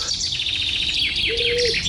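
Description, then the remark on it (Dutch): A finch hidden among tree branches sings a rapid, steady trill of repeated high notes, ending in a brief flourish, with a sustained whistled tone and faint background noise underneath. “Verborgen tussen de takken gaf een vink een reeks aangehouden trillers ten beste, die die telkens afronden met een zwierige uithaal.”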